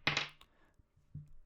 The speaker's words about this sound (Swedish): Eh, så att jag slår min tärning eh, här och nu och ni får höra den. Den låter så här.